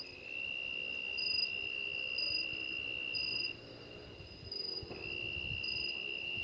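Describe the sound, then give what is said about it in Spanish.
A steady chorus of crickets trills continuously, with several high, overlapping chirping tones pulsing in an even rhythm against a quiet nighttime background. “Y esta vez me tocó cerrar este podcast con un coro de grillos.”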